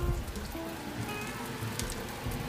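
Steady sizzling and crackling of food deep-frying in hot oil, a dense hiss with scattered pops that holds at an even level throughout, with no talking.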